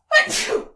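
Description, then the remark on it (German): A single sharp sneeze bursts out loud, a quick explosive onset trailing off into a breathy release within a second. “Gesundheit. Gesundheit.”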